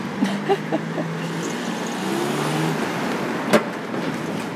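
Steady city traffic rumbles, with a vehicle engine droning low and a few sharp knocks and clicks standing out, as someone walks along a busy street in Aalborg, heading east from the train station toward the Vejgaard district. No one speaks.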